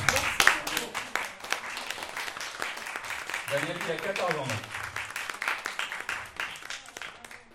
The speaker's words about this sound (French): on peut l'applaudir.